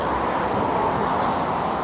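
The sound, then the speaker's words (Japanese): A steady, broad roar of road traffic as cars pass through a tunnel fills the whole stretch, a dense wash of engine and tire noise with a reverberant, enclosed quality and no distinct individual events. “はいまあ今ちょうどねトンネルを歩いていますまあまあ怖いっすね、まあ、車通ってくれるんで”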